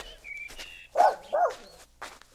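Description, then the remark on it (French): A dog barks three times in short, sharp bursts, the last bark cut off at the end, with a faint high whine or whistle just before the first. “Il ramène son chien maintenant.”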